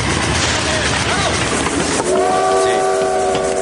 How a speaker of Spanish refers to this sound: Estación de Nizhneudinsk, a 450 kilómetros de Irkutsk. El ferrocarril se detiene.